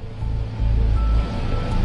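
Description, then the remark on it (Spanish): The jet engines of an airliner in reverse thrust, used to back the plane away from the boarding gate on a snow-slick taxiway, give off a loud, steady low roar with a deep rumbling undertone that holds for the whole moment. No voices are heard. “Acciona la reversión de escape de los motores del avión y mantiene la propulsión reversa.”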